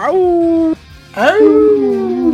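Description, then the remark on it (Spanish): A man imitates a wolf with two long, loud howls. The first is steady and the second swoops upward before holding, with a brief gap between them. “Pero pues aquí está el lobo de cumbres”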